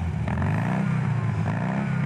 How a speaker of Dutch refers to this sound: Lucht gekoeld. Ik kom nu vanavond eh, terug van de garage, moet je eerlijk zeggen. Het is 50 jaar oud, mijn auto.